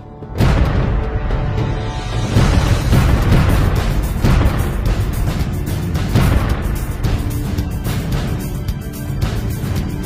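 Loud, continuous rumbling blasts and booms fill the scene, with repeated sharp cracks and bursts of explosions and gunfire during a company-level military manoeuvre with live ammunition, heavy throughout.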